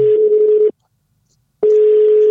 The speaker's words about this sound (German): Telefonjoker. Klingelt auf jeden Fall der Telefonjoker. Den brauche ich.